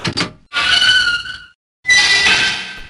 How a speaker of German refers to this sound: Gleichzeitig hat das aber in diesem Fall zum Beispiel, oder allgemein gesprochen, ähm, hat die Wahl des Soundeffekts auch einen entscheidenden Effekt ob die Stimmung des Spiels. Wenn ich jetzt eine knarrende Tür nehme oder eine rostige Tür